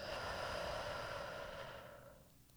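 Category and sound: human body sound, slow deep exhale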